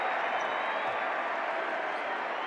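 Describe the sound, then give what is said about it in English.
A packed basketball arena crowd roars steadily as Warriors fans chant "MVP" and Jazz fans boo them down while Curry goes to the free-throw line, a dense wash of chanting and booing voices that holds at an even level throughout, with a few faint thumps underneath. “Warrior fans start chanting MVP. Jazz fans start booing them down.”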